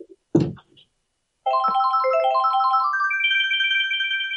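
A brief thump, then the bright electronic item jingle from the Mario Kart video game: rapid cycling chime notes that climb in pitch and settle into a sustained high tone, loud and clear with no talking.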